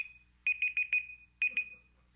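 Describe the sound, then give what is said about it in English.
A phone alarm, set off in a pocket by the screen pressing buttons, beeps in rapid electronic pulses over a steady high tone, sounding in two short bursts with a brief pause between, fairly loud, with no one talking. “When I put my phone in sometimes with the screen on, it starts pushing all kinds of buttons.”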